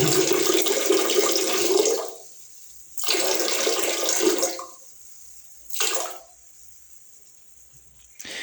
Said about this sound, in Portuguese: Só um pouquinho, deixa eu mijar.